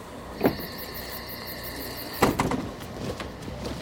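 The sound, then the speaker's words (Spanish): A bus door opened by the driver at an unscheduled roadside stop: a sharp click, then a steady mechanical whine for under two seconds, ending in a heavy clunk and a few rattles as it settles. No voices. “Así que hizo una excepción y les abrió la puerta.”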